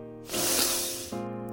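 One long, deep inhalation through the nose as a man uncorks a frost-white bottle and breathes from it, a breathy hissing sniff that swells quickly and fades over about a second, set against a low steady musical drone.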